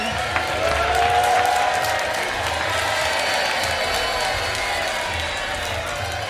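At the opening of an evening event, a crowd applauds and cheers steadily for two performing artists, a dense wash of clapping with shouts and a brief whistle-like whoop near the start, holding at a fairly even loudness.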